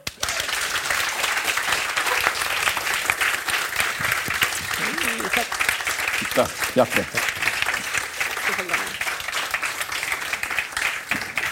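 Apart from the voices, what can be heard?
audience applause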